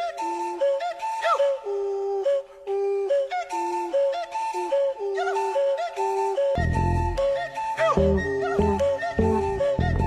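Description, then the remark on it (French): Hollow, breathy whistling tones from a drummer blowing into beer bottles bounce between a few pitches in a loose repeating pattern at the start of a song, then a deep bass line and other instruments join partway through. “Le petit sifflet au début, c'est le batteur qui souffle dans des bouteilles de bière.”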